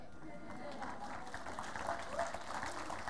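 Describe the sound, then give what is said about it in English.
Thin, half-hearted audience applause: a steady patter of scattered claps at a fairly low, even level for about three seconds, with some murmuring voices mixed underneath. The clapping is by a church audience. “That was such a pathetic clap.”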